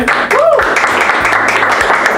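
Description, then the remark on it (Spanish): An audience breaks into loud, steady applause for a special guest, a dense wash of many hands clapping that holds at full strength for about two seconds, with a brief rising-and-falling cry near the start. “Este, este, vamos a darle un fuerte aplauso, la gente.”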